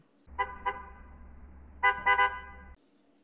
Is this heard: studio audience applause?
no